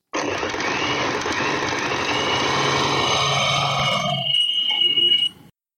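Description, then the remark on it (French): A recording of a sewing machine, replayed: it runs steadily for about five seconds, a loud, continuous mechanical whirr with a slightly rising pitch before it cuts off abruptly. No one speaks. “enregistrer le son de votre machine à coudre.”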